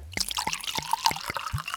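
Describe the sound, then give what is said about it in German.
Fifty-year-old whisky pours into a shapely whisky glass over the ashes of a burned 100-euro note in a steady series of about six gurgling glugs, with splashy trickling between them and no voices. “Und äh, wir tun die Asche jetzt in ein formschönes Whiskyglas und gießen einen 50 Jahre alten Fiddish drüber”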